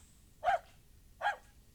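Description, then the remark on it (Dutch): A large white dog, Masja, gives two separate barks spaced under a second apart. Each is a short, full-bodied woof standing out clearly against a quiet background with no one talking. “Masja was altijd zo lief. Een grote witte knuffelhond”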